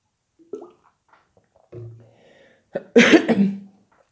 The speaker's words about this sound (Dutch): Goed, ik neem even een goede slok water.